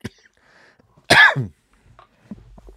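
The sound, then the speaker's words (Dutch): A single loud cough bursts out in a short harsh double-pulse, followed by quiet background noise and faint small movements. “Sorry voor mijn hoest.”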